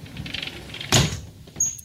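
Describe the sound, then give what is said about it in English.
A stateroom balcony door slides and shuts with one sharp thud at about 6 p.m. as the sun sets, cutting off the breezy outdoor background. A brief high squeak follows in the quieter room. “the balcony door, and then I'm going to close the curtain.”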